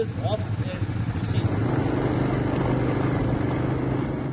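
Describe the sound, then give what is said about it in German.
Quad bike engines rumble steadily throughout, a loud, continuous low drone with a slightly uneven, throbbing texture as the quad bikes of a guided tour with a group of Dutch tourists keep driving. “Die beginnt heute mit Quad Bikes und einer Gruppe Holländer.”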